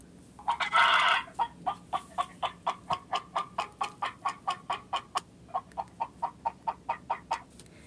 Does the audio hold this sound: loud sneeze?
no